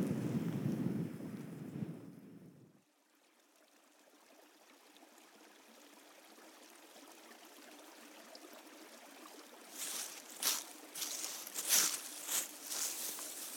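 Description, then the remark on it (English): Wind blows across an open hillside under cloud cover as daylight fades, starting with heavy low buffeting that drops to a steady airy hiss, then a few sharp rustling gusts near the end. No one speaks. “As the breeze is still with us, the daylight is not.”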